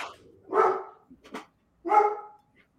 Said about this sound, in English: I'm so sorry. That is my that is my dog, and he's right over there.